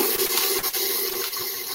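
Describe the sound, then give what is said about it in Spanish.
A cup of warm water is poured steadily onto gathered crumbs to be mixed into a dough, one continuous splashing stream, a bright hissing wash lasting a couple of seconds with no voices. “que dijimos que vamos a echarle una taza de agua ¿Qué va a hacer el agua tibia?”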